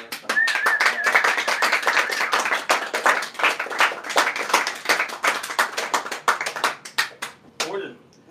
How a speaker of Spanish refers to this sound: Muchas gracias, un aplauso para todos los que han aguantado